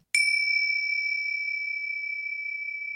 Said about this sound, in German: Und schon die geringste Bewegung von ihm ließ das Glöckchen bimmeln.